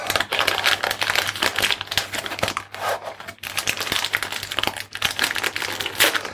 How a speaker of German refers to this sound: Und weil das nicht reicht, rascheln wir jetzt noch schön rum und machen eine neue Packung auf.